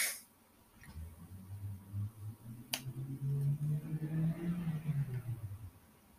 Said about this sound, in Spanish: pero el carro que sí se escucha a lo lejos va muy rápido.